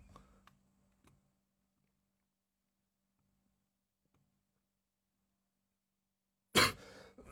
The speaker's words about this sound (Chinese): 哎呀，刚才还好好的，这会儿怎么一直咳嗽呢？